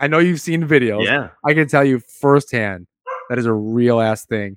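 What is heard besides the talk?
dog barking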